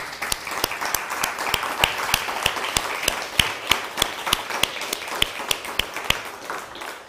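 A crowd applauds God ("el bendito sea") steadily for about seven seconds, a dense wash of clapping with sharp, louder individual claps popping out at a fairly even rhythm throughout.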